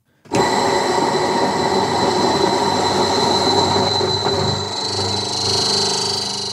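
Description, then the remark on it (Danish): An electric spice grinder grinding whole spices, held pressed on rather than pulsed, switches on abruptly and runs loud and steady for several seconds, its high motor whine mixed with a dense rattling churn from the spices inside. No one speaks. “så kan vi høre, at den er ved at være nede nu, og der er ikke mere krydderi op.”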